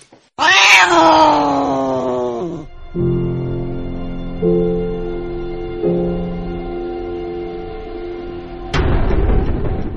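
A cat gives a loud, high yowl that slides downward, then breaks into a long, low, wavering caterwaul for several seconds before a sudden rush of noise cuts in.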